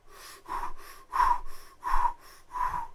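Deep, audible abdominal breaths from a person lying down, expanding the belly, a steady airy in-and-out rhythm repeating several times, each exhale pushing out a soft rush of air, with no talking.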